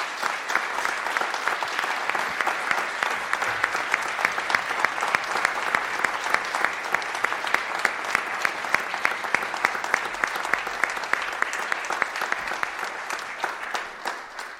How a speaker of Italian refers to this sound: Vedo i cantanti in fondo, vorrei ringraziarvi perché eh, prima di tutto ci avete dato della bella musica da sentire, quindi un applauso per tutti.